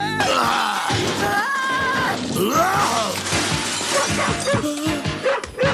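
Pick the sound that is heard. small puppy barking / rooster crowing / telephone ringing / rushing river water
small puppy barking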